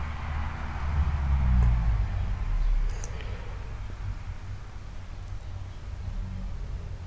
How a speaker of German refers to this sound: Da fährt ein Auto.